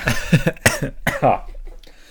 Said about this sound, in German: ja, Husten kam dazu seit heute. Weil ich so viel Holz geschluckt habe, eingeatmet habe.